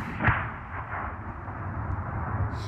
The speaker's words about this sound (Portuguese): Há muito que a terra, pisada pelos seus pés, mareava em guerra. Às vezes adormecia a som das balas.